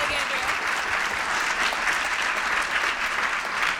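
A steady round of applause from a crowd at a New Year presentation, welcoming a colleague to the stage. Many hands clap in a dense, continuous patter that holds at an even, fairly loud level throughout.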